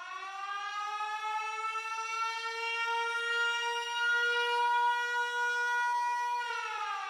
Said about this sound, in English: I think it's time to wow, wow, wow, wow, wow, sound the alarm on Zach Moss.